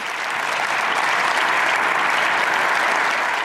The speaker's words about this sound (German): Minutenlange Applaus und Standing Ovations, die ukrainische und die Europahymne werden gespielt.